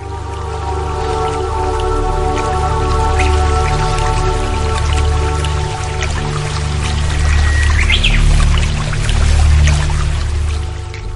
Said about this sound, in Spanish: con este hermoso sonido relajante que siempre nos invita el agua